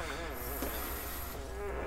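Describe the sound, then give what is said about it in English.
A drawn-out, buzzy fart with a wavering pitch, lasting nearly two seconds at moderate loudness with no talking over it. “Was that a fart? Yeah.”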